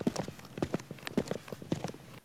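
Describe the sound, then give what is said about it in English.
Rhythmic footsteps clack on a hard floor, falling in quick little groups that repeat steadily about twice a second, with no voices. “Um, you hear footsteps from behind you”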